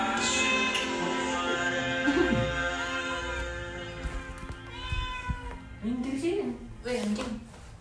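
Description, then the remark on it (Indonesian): A cat meows repeatedly, drawn-out and wavering cries standing out against a busy, noisy background with some voices mixed in. “Iya apa sih aneh bener tuh kucing?”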